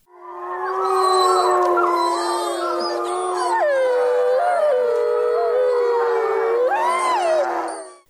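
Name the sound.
wolf howling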